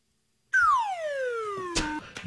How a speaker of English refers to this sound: it's just a fun one. You know what I mean? I love the slide whistle. It's so good.